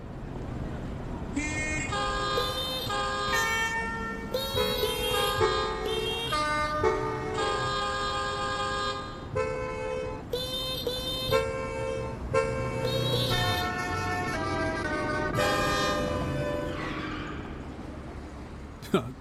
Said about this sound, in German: Jetzt gibt es nochmal so ein Hubkonzert in der Großstadt und wir fragen jetzt nochmal, so wie beim ersten Rätsel, welches Lied wird jetzt hier gehupt?